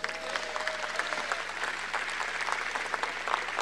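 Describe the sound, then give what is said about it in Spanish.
A church audience applauds the church's servers steadily, a dense wash of many hands clapping at an even level for several seconds without letting up. “Denles un aplauso a nuestros servidores.”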